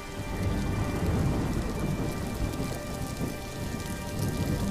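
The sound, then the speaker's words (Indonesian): Steady pattering rain falls continuously, a dense wash of drops with a low rumbling undertone like thunder, even in loudness throughout, with no voices. “Loh, loh, eh adik-adik itu suara rintik hujan.”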